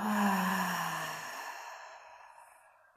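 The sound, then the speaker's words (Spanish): A single long, deep exhalation during a breathing exercise, breathy and audible, starting fairly loud with a slight voiced hum and gradually fading away over about three seconds, with no talking. “Vas a inhalar y exhalar tres respiraciones bien profundas haciendo el sonido.”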